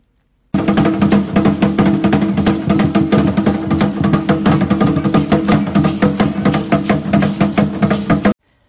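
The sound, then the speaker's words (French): A traditional Aztec huehuetl drum beaten in a fast, steady rhythm for several seconds, loud, with resonant low tones ringing under each strike and no voices. “Ce que vous venez d'entendre, c'est le son produit par un huehuetl, une sorte de tambour traditionnel utilisé à l'époque par les Aztèques”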